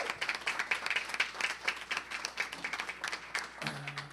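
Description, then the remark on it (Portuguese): A church audience claps together in sustained applause offered to the Lord, many hands producing a dense, crackling patter that holds steady for several seconds, with a low hum entering near the end. “Você que foi abençoado, dê mais uma salva de palmas ao Senhor, amém?”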